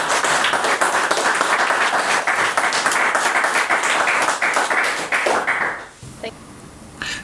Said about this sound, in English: Warm applause. Thank you.